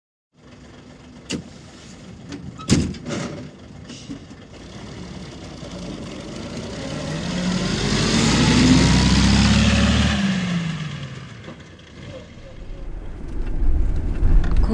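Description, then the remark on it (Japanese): Inside a bus riding to a seaside town, a few sharp clunks of the door ring out early, then the diesel engine rumbles steadily, swelling into a loud, rising drone as it pulls away before easing off. “紅葉女子会のメンバーは寒華系で紅葉に浸った後海沿いの町までバスに揺られた”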